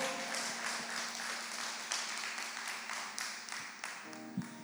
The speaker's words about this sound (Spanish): un aplauso al Señor fuerte en este domingo.